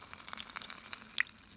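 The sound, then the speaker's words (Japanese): Antarctic ice crackling as lukewarm water is poured on it, releasing air trapped for tens of thousands of years: a quiet, steady scatter of tiny sharp pops and fizzy clicks, irregular, with no voices. “これ南極の氷から出てる空気の音なんですけどもえはい南極の氷にはあの数万年前の空気っていうのが閉じ込められていて、はい、それを溶かすとですね中からおあの空気が出てくるんです。”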